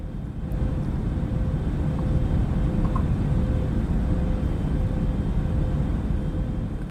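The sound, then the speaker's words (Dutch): A steady, loud, low droning roar fills the whole stretch without change, the engine noise of an airplane heard from inside the cabin, with a faint constant hum riding on top. “vliegtuig van binnen”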